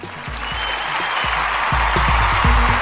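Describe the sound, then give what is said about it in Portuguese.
A steady wash of applause from a crowd, dense and loud throughout, with a low rhythmic thumping tone running underneath the clapping. “Porra, sinceramente, salva de palmas aí.”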